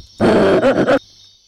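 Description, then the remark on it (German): A short, loud video-game death cry of a monkey, a harsh grunting screech lasting under a second with a few pulsing bursts, heard alone over a faint electronic hum. “Der Affe ist getötet worden.”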